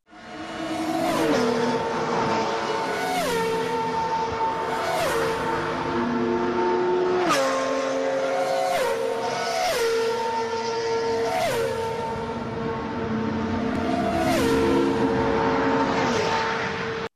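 NASCAR race cars roar past the camera one after another, each engine whine dropping in pitch as it flies by, in a loud, continuous stream of high-speed passes with no talking.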